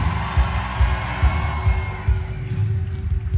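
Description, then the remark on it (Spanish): An audience shouts and cheers, a dense continuous roar with a steady low thumping pulse beneath it, like music or stomping, for a few seconds. “Grite porque algo está pasando acá.”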